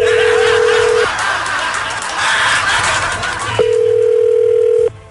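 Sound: telephone dial tone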